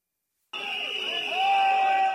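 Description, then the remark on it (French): A loud, dense crowd of dozens of protesters at the Salon de l'Agriculture boos, with sustained shrill whistle blasts piercing through, the noise swelling and staying deafening for a couple of seconds after an abrupt start. “Une arrivée sous les huées et les coups de sifflet, la scène est assourdissante.”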